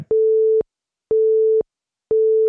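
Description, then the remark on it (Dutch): A telephone line tone from a phone call made the previous day, steady mid-pitched beeps, three half-second pulses separated by equal gaps, clear with no voices, like a call waiting to connect. “Maar ik heb er gisteren even toevallig mee gebeld. Ik zal het even laten horen, dan weet je niet zo dat er mee gaat.”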